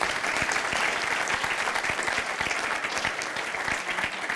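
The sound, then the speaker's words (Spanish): Sustained audience applause, a dense steady patter of many hands clapping at even loudness throughout, with no voices rising above it. “Dele ese fuerte Give aplauso.”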